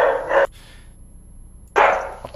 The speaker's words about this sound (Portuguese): Cala a boca desse cachorro, pelo amor de Deus!